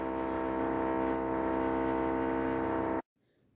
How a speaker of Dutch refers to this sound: Oké, de buurman die ging eh, boren met een eh, klokboormachine volgens mij. Dus dat maakt wat lawaai.